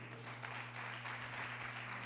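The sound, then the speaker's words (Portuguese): An audience applauds the Lord during a church sermon in a steady, dense patter of many hands for about two seconds, fairly soft overall, with a low constant hum underneath and no one speaking. “Pode aplaudir o Senhor, porque isso é maravilhoso.”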